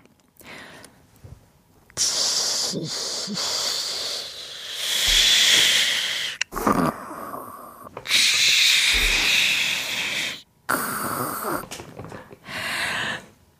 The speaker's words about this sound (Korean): 바로, 고기 굽는 소리입니다.